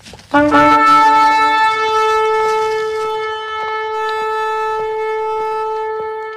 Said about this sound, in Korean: 여우수아의 손짓에 제사장들이 큰 소리로 나팔을 불기 시작했습니다.